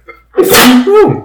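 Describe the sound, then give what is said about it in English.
A single loud sneeze bursts out with a sharp breathy blast and a voiced tail, preceded by a faint intake of breath and a brief laugh. “Bless you.”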